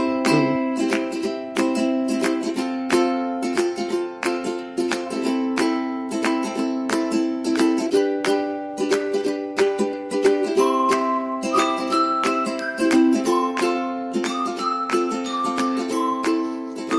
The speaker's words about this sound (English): Whistling and ukulele. It's the worst combination you can get.